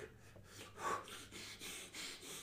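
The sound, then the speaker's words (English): A voice imitates a tied-up man breathing heavily through the nose: a series of rhythmic, snorting huffs, fairly loud, repeating steadily with no words spoken. “breathing heavy through his nose because he's having a you know he's he's tied up.”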